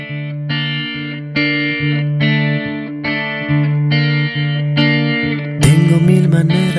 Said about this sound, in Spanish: Y ahora vamos a escuchar una canción que me encanta para seguir rockeando,